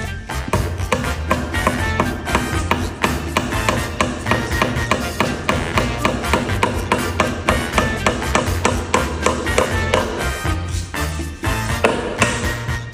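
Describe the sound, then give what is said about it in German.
Rapid, steady hammer blows drive nails into a wall, a second nail two centimetres from the first, to hang something up; dozens of sharp, loud knocks in a continuous even rhythm throughout, with no one speaking. “Ich habe jetzt einfach da einen Nagel in die Wand, zwei Zentimeter einen anderen Nagel und dann hänge ich das da auf.”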